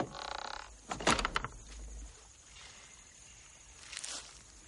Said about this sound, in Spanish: Se abre la puerta de la casa y sale George.